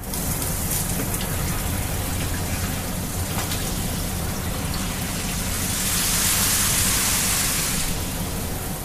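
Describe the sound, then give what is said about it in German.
A shower runs steadily in a sleeper train carriage, a dense hiss of spraying water over a low rumble, the splashing growing brighter and louder for a few seconds near the end. “Eine eigene Dusche gibt es hier im Abteil zwar nicht, aber einen Wagen weiter ist ein etwas anderer Schlafwagentyp und der hat eine Dusche, die noch dazu sehr sauber ist.”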